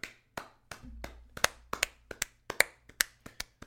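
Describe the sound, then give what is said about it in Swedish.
Sparse, uneven hand clapping from just a few people, with sharp individual claps spread over a few seconds in an irregular rhythm. No voices. “En applåd kanske?”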